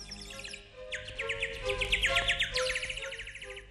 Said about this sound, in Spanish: Y cantaba el petirrojo: Curí, curí, cuío, cuío, está temblando de frío, y nadie quiere ir conmigo.